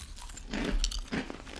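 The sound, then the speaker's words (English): A crisp crunching bite into apple pie toast crunch cereal, followed by a second burst of crackly chewing, loud with no talking. “Go get you some mustard. Put it on this apple pie toast crunch. Okay, here we go.”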